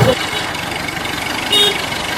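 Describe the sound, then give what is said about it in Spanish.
A jeep engine idles and rumbles with a fairly loud, continuous mechanical drone, briefly swelling louder near the end, and no voices on top. “Eh, en carretera usted va cargado con su jeep y la gente es emocionada, le pita, le pita.”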